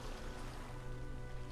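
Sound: sea waves crashing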